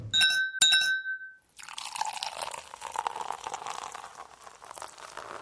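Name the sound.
wine glasses clinking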